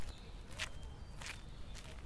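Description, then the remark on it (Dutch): Three steady footsteps crunch softly along a woodland path on the Elswoud estate, with the orangery to the left, evenly paced about half a second apart, fairly quiet, with a faint low rumble in the background. “De weiden, de boomgaard en nu lopen we in een stukje bos met links van ons de oranjerie.”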